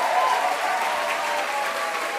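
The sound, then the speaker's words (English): A crowd at the end of a service claps steadily and enthusiastically, with scattered whoops and cheers rising through the dense, continuous applause for the whole stretch, as thanks are given to the choir and band. “So stay put, and, and again, let's have some whooping and some cheering.”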